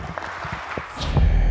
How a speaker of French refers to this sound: pour applaudir s'il vous plaît